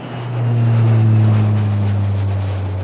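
A steady airplane engine drone of a plane flying from the USA over the sea to England swells in and holds loud, with low tonal hums shifting slightly in pitch as the aircraft passes, no voices present.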